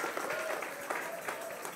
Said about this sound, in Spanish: Si usted entendió ahora, dele un aplauso fuerte al Señor.